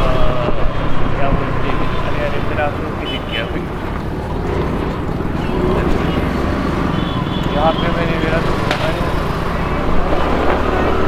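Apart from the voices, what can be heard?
scooter engine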